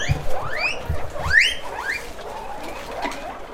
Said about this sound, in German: Darin quieken zufrieden mehr als 300 Meerschweinchen.